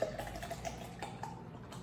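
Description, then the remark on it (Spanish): Water pours steadily into instant coffee with sweetener and a splash of milk in a thermos for a couple of seconds, a soft, continuous trickle with faint splashy ticks and no voices. “Y agua. Le pongo más agua que leche.”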